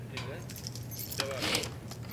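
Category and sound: household object, keys jangling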